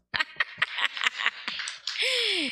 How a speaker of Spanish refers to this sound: ¿Cuánto lleva? Uy, aplausos.